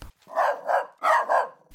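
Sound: dog barking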